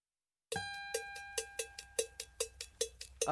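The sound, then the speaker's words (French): After a brief silence, a Brazilian song opens with a steady pattern of bright, ringing cowbell strikes, about three or four per second, fairly loud, with no voices yet. “Et c'est un morceau qui est très beau pour se réveiller. Très bien. Eh bien, on va écouter ça tout de suite et on se dit à tout à l'heure.”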